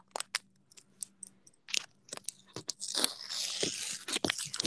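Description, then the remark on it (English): Tape being peeled off right next to a phone: scattered sharp crackles at first, then a louder, continuous rasping rip with no voices over it. “I'm taking a piece of tape off of this right now. It's really loud”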